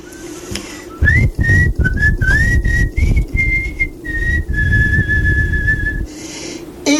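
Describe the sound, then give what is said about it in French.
A person whistles a song melody in clear, sustained tones with short gliding notes, steady, over a soft low background rumble with no talking. “Et donc je siffle et les gens reprennent souvent.”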